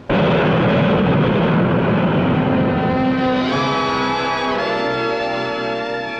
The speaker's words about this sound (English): The Whisper jet climbs to smooth cruising altitude faster than any other jet airliner.